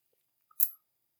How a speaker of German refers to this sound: Boah, ist das befriedigend, an den Finger zu kauen, ne?